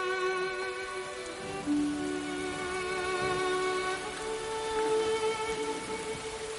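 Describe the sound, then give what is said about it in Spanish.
Steady rain hisses evenly throughout at the Calvary after Jesus dies, a dense wash of falling water mixed with sustained low musical tones that hum underneath without pause. “Llueve.”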